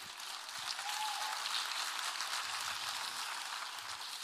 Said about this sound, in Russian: Давайте за это Богу поаплодируем.